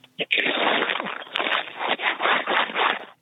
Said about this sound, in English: Oh my God, the ruffling is so much.